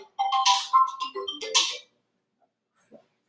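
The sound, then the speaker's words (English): A phone ringtone for an incoming call chimes a short, bright electronic melody of rising and falling tones for about a second and a half, fairly loud, followed by quiet with a few faint blips. “oh, oh I got a phone call.”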